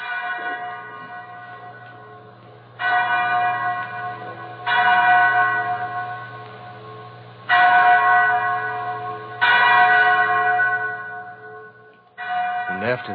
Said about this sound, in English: Mary, that's the chapel bell.